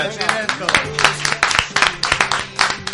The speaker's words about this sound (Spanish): Venga, un aplauso.